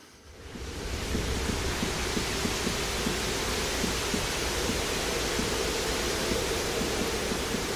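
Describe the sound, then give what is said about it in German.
Steady, dense hiss of artificial rain in a zoo's tropical house, rising in over the first second and then holding constant, with faint low patters and a soft rumble underneath. No one speaks. “Oder eben auch der künstliche Regen im Tropenhaus, der im Trailer des Films so klingt.”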